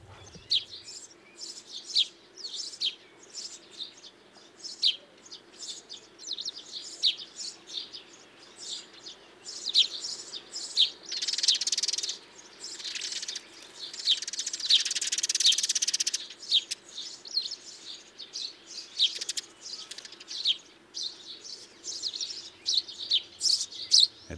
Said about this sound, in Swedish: det är pilfinken som har det här lite mer tjattrande ljudet ja. där. Mm. Eh, den påminner mycket om gråsparvensliten, men den är, den är mer distinkt och ettrig mm. än gråsparvensliten.